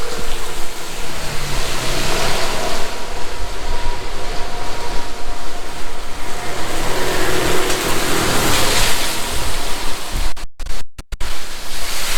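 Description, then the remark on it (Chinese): Heavy rain pours down in a loud, steady, dense hiss that fills the whole clip with no one speaking, broken only by a few brief dropouts near the end. “然后呢，现在这边在下雨，”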